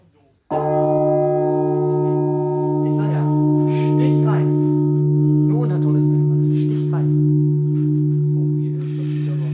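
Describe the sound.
Heavy church bells ring with a loud, sustained, humming tone that starts abruptly and fills the space, their deep overtones lingering steadily while voices murmur faintly underneath.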